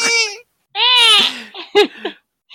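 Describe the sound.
A person imitates a baby's crying with two long, wailing, high-pitched cries, followed by a few shorter whimpering sobs and a brief trailing squeak, loud.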